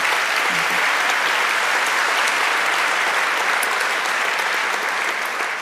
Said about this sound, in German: Ein Applaus.